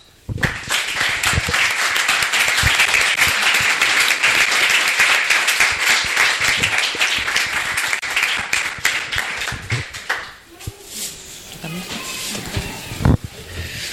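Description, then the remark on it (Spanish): A crowd applauds loudly and steadily for about ten seconds, a dense wash of many hands clapping, then it thins out into scattered claps and fades with a few murmurs. “Un aplauso para ellos.”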